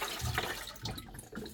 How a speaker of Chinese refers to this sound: OK，我重新重新把锅里的水倒掉，接一点点清水。